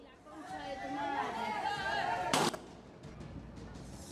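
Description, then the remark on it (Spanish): A single sharp gunshot from a shooting in an ordinary neighborhood, tied to a settling of scores, cracks out midway through a steady murmur of crowd chatter, fairly loud against the background babble, which carries on afterward. “Poneme el video, el, de hoy, el del tiroteo, en un barrio común y corriente.”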